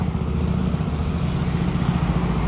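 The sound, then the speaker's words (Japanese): Steady rumble of road traffic at 8:30 on a Saturday morning, with many cars and motorcycles on the roadway and a motorcycle engine prominent among passing cars, loud and continuous throughout with no voices. “車道側にはたくさんの車バイク走っております朝8時30分、えー、土曜日なんですけども”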